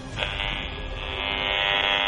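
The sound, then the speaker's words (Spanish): A steady electronic buzz, dense with harmonics, drones for about two seconds and swells slightly louder toward the end. It sounds like a detector meter buzzing as it picks up the signal of a downstairs neighbour's cordless phone coming through the floor. “Este es el teléfono inalámbrico del vecino de abajo que está traspasando el suelo y llega a la persona que está trabajando aquí, en este punto.”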